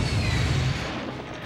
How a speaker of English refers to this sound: Yeah. What do you think of the movie? Much better explosions than your last one. Oh yeah, yeah, digital.